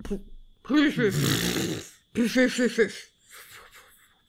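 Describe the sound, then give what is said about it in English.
A person mimics a horse's whinny, imitating the noise made by the character Sir Dan, with a wavering, quavering voiced cry, then a quick run of choppy staccato pulses, trailing off into a fainter breathy sound, fairly loud. “that's a reindeer noise, and he does that.”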